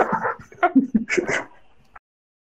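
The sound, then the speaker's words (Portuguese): A dog whimpers and lets out a string of short, high yips for about two seconds, then goes quiet. “O cachorro tá saindo vídeo, tu não.”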